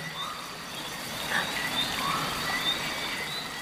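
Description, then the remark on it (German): Brief, high-pitched chirps of birds pop up here and there over a steady, hissing wash of splashing water, with no voices present. “Das Zwitschern und Plätschern.”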